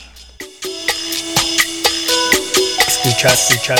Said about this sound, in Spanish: Es una banda estadounidense, de estas bandas que en la década de los 90 verdaderamente sonaba un montón.